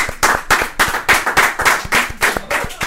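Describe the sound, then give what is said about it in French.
A small audience applauds two players, one who finished fifth and one who finished ninth in the World Series Europe main event; the claps fall into a fairly steady, quick rhythm of crisp, bright bursts that carry on for a few seconds without anyone speaking. “bon, les applaudissements étaient pour les deux.”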